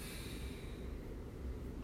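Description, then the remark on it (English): A long, steady inhale drawn through the nose during a guided breathing exercise, a soft continuous rushing airflow lasting nearly two seconds, fairly quiet with no talking. “And we're breathing in and we're breathing out.”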